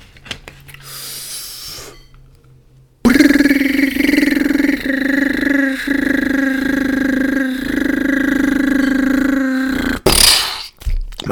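A loud, harsh, buzzing mobile phone alert tone blares for about seven seconds, distorted and droning with a steady rhythmic pulse, starting and cutting off abruptly against quiet background noise.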